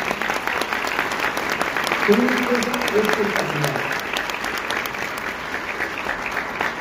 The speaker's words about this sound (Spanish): y a darles un fuerte aplauso también.